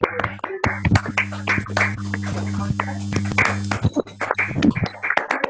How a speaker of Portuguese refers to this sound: Cadê as palmas?